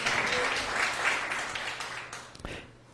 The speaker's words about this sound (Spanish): Date un aplauso, dátelo tú, claro que sí, para la gloria de Dios.